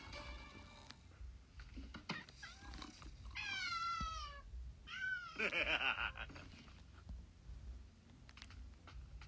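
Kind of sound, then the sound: animal, cat meowing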